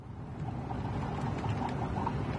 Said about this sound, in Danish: Det syder bobler. Den kommer fra det syder bobler. Den kommer fra hjemmebrænderiet i bagagerummet.